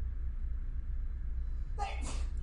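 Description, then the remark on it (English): A single sharp sneeze bursts out near the end, preceded by a low steady background hum with no talking. “Bless you.”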